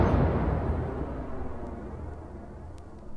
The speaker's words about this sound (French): Dernier coup de canon.